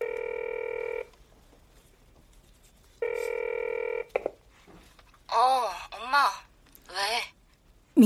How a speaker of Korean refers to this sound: 아침 식사를 마친 당신은 민경에게 전화를 건다.